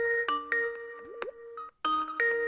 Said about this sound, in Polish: o, ktoś nam dzwoni. To dawaj, odbieraj.